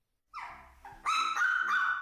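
A mixed-breed dog whimpers in a high, wavering tone, then breaks into louder, sustained yelping cries with a bark-like edge, about two seconds of sound with no one talking.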